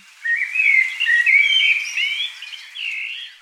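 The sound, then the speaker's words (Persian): Songbirds warble continuously in a bright, varied song in a blossoming garden in spring, with overlapping whistled and chirping phrases, clear with no talking. “پرنده ها که هر کدوم به زیبایی آواز میخوندن طوری که گوش انسان از شنیدن این همه نقمه های زیبا کیف میکرد این پرنده های زیبا در باغ زندگی خوبی داشتند.”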